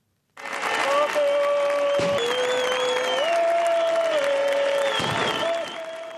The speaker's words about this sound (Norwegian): Gruvearbeidere med hvite hjelmer ble tatt imot med jubel av flere tusen sympatisører da de kom til hovedstaden Madrid i går.